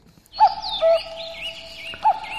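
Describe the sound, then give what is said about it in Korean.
A common cuckoo calls with clear, hollow notes, alone with no talking, while higher chirps from other birds flutter faintly in the background. “아, 뻐꾸기 소리군요.”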